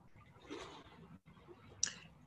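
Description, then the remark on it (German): Small waves on a lake at Interlaken lap softly against the shore, a gentle swash swelling and fading, then a sharper little splash near the end, all low in level. “das, was man hier im Hintergrund hört, das sind die Wellen”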